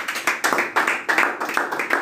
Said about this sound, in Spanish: Muchas gracias Gaby, este aplauso es para vos.